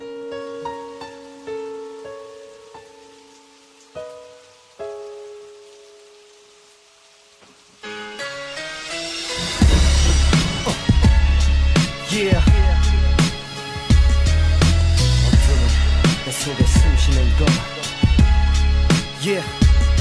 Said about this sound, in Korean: 이 노래 사운드가 굉장히 그 장중하죠 무겁고 막 교향곡 같은 그런 사운드를 가지고 있고 있는데